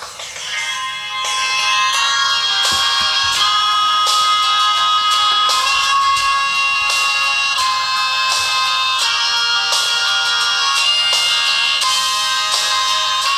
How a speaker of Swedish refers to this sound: Nej, eh, det här är näst sista låten på plattan som blev deras sista eh, i den sättningen och jag tycker den är fantastisk. Mm. Eh, och den doftar … så det bara sjunger om det.